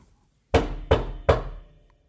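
Three firm knocks on a door on a December morning, in quick, even succession, each a solid wooden thud with a short ringing decay, fairly loud, followed by quiet.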